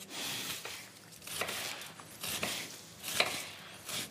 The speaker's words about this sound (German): ich hack jetzt hier die Zwiebel weg.